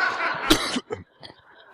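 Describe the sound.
A person performs a brief cough, with a couple of sharp bursts followed by softer breathy sounds and one last short burst at the end.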